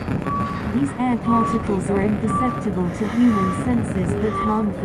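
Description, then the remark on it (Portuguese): Air pollution data gathered by a bicycle pedalling through the streets of Lisbon is turned into sound: steady electronic beeps repeat about once a second over warbling synthetic tones, with a constant low street rumble underneath. “quality reporter will convert the air particles around you into sound.”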